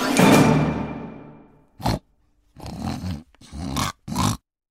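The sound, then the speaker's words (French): A big, shaggy, slobbering pig lets out a long, loud squealing snarl that fades, then gives four short, rough grunts in quick succession, forceful, with no talking. “Et disant ces mots, elle siffla de toutes ses forces et un gros cochon hirsute et plein de bave apparut.”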